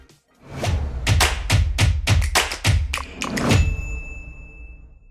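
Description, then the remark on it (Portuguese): The short intro jingle of the Cafeína show: quick, rhythmic percussive thumps and taps build for a few seconds, then end on a bright, sustained ringing tone that slowly fades. No one speaks. “Roda a vinheta.”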